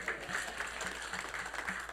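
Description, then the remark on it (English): An audience at a church service claps for the Lord Jesus, a dense wash of many hands with steady rhythmic pulses, sustained applause. “Clap for the Lord Jesus.”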